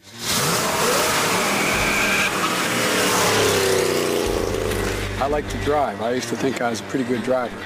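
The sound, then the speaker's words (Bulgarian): A powerful V8 engine of a 1967 Corvette Stingray sports car roars loudly as it accelerates and drives, a steady deep rumble throughout, with a voice talking over the last few seconds. “Той притежава корвет Стингрей, модел от 1967, подарък за неговата сватба от баща му, който е работел в автокъща.”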